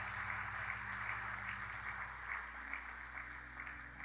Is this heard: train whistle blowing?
no